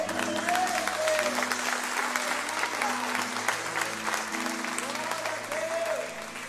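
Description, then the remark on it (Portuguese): A church audience claps steadily in a dense, sustained wash of applause given to the Lord, with sustained low musical tones and a few voices rising underneath, fading slightly at the end. “Se você crê nisso, dê um forte aplauso ao Senhor.”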